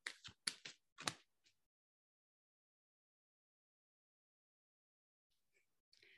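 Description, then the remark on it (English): Crisp slaps of a deck of cards being shuffled: four or five quick bursts, then a long quiet pause before softer card rustling returns at the end. No talking. “And I'm shuffling the cards. So if that's what you're, the sound that you're hearing.”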